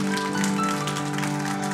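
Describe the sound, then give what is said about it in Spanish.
A church audience claps loudly for the Lord in a dense, steady burst of applause that stays loud and even from start to finish, with a sustained musical tone humming underneath and no voices. “¿Cuántos pueden darle un aplauso fuerte al Señor porque Él es bueno?”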